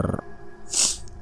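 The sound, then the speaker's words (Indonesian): A single short, wet nasal sniff from a runny nose due to a cold, a quick hissy intake lasting under half a second, after a brief low murmur at the start. “eh uh, maaf ya kalau ada suara-suara serak serok serak serok itu suara hidung yang sedang hujan alias pilek.”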